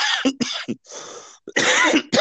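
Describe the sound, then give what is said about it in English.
A burst of loud, harsh coughs delivered directly into the microphone, rough, with a breathy wheeze between fits and no talking. “Well, we forgot to have you cough directly into the microphone.”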